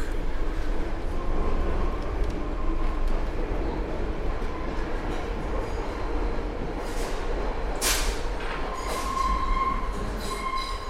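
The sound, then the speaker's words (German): A train rumbles steadily into a siding, a dense low roar with rattling wheels, punctuated by a few sharp metallic squeals and hisses near the end. “Der Zug rumpelt in die Abstellung.”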